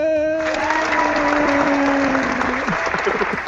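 An applause video played back: a dense, steady wash of many hands clapping, loud throughout, with a sustained tone and some voices blended in beneath the clapping.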